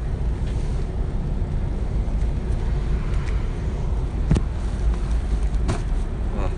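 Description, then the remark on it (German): A steady, heavy low rumble of a bus driving, heard from inside by a passenger riding to the Rüfettstraße stop, with constant engine and road noise and a couple of brief sharp knocks partway through. “Ein Kollege kommt in denn buss und fahre die gesamte Strecke”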